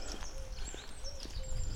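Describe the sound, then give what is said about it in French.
Soft, low cooing from turtle doves repeats a few times, mixed with faint high chirps from other birds over quiet outdoor background noise, under an overcast sky at 15 degrees. “mais avec toujours autant de tourterelles.”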